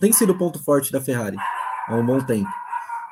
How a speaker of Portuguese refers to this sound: Dá para ouvir o cachorro latindo aqui?